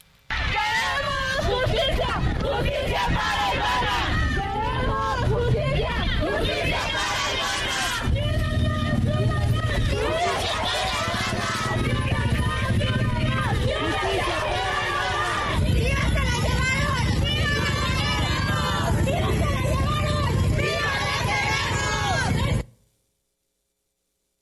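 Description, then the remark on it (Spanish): A large protest crowd of relatives and supporters chants and shouts in loud, rhythmic unison, demanding justice after the kidnapping and murder of a 22-year-old woman, voices overlapping in a dense continuous roar for over twenty seconds before cutting off abruptly. “Imagínense, así se escuchó esta protesta.”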